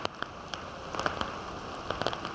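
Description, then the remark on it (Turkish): Heavy rain pours down in a steady, dense hiss, with sharp drips and splashes popping out irregularly above the constant wash of water, during a downpour that has flooded homes and streets and stranded cars. No one speaks. “Sağnak yağıştan caddeler göle döndü.”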